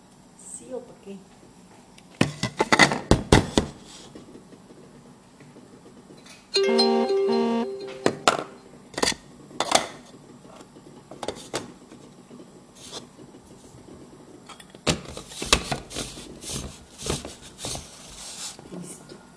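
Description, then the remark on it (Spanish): A lime being juiced directly into a blender jar with a wooden hand reamer that has grooves and a pointed tip: bursts of grinding, scraping twists with a brief squeaky whine in the middle, then more wet rubbing strokes. “de mano, que es de madera, como con unas mm, zanjas y una puntica para poder exprimir.”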